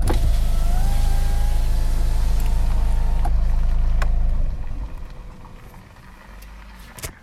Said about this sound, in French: Ah mince, faut que je démarre la voiture pour euh, ouvrir la fenêtre.